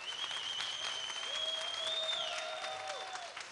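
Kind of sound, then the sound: crowd, audience applause and ovation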